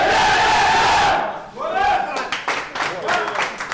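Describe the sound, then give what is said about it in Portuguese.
A team of 18 men aged 19 to 34, with their coach, huddles in a circle with arms around each other for the shout before the game starts: many voices roar together in one loud, sustained yell, then break off into a burst of scattered shouts and sharp claps. “junta-se agora ao treinador e aos 18 rapazes com idades entre os 19 e os 34 anos abraçam-se numa roda para o grito antes do início do jogo.”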